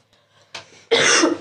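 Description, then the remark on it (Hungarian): A forceful cough: a short harsh burst followed by a louder, longer rasping cough, with no talking. “Újabb kölgés, mindjárt visszajövök.”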